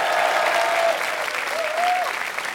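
An audience at the Apollo claps loudly and continuously, with a couple of whistles cutting through the dense applause and scattered cheers.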